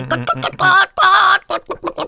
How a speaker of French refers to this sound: C'est une poule un peu enrouée quand même.